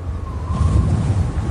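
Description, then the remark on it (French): A strong gust of wind roars steadily with a heavy low rumble, blowing a roof shingle away, and a thin whistling tone rises briefly over it before fading. No voices are heard. “c'est notre bardeau qui part au vent.”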